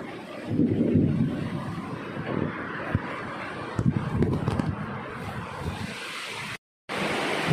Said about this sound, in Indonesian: Ya, sekarang turun hujan deras.